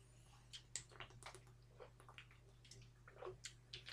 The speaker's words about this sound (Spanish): Voy, bebo agua y ya, y ya hablo de eso.